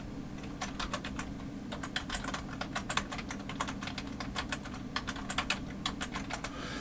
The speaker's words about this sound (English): Okay, so let's look at the cosmic microwave background radiation. We'll type that into Google here.